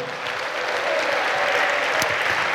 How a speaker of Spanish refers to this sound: ¿Cuántos le dan un aplauso a Dios por eso?